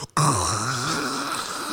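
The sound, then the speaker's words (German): A voice imitates a cappuccino machine's milk steam wand as heard in the background while performing a show, producing a loud, steady breathy hiss that lasts over a second, with a low groaning tone wavering underneath. “Das, das ist eines der schlimmsten Geräusche, die es gibt. Beim Auftreten. Cappuccino, äh, Milchdüse.”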